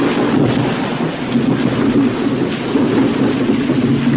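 Heavy rain pours down steadily before dawn, a dense hiss filling the whole stretch, with a deep rumble of thunder rolling underneath throughout. No one speaks.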